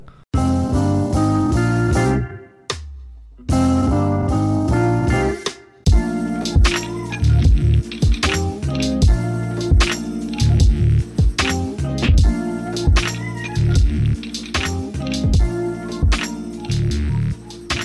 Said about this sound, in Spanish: Y esta es la intro. Acá eh, acá empieza la música.